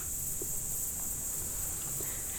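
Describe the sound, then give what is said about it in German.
Crickets chirp in a steady, unbroken high-pitched trill that fills the background, soft, with a few faint low knocks beneath and no voices, on a warm evening at dusk below the rocky Großer Buchstein. “Die Luft ist warm, die Grillen zirpen”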